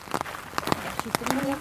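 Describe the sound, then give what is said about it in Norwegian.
Irregular crunching footsteps from hikers walking on a path around Sognsvann lake in Oslo, Norway, moderately loud, with faint indistinct voices or a brief tonal sound mixed in toward the end. “er lyden av turgåere rundt Sognsvann i Oslo.”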